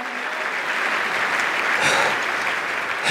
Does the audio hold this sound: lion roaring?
no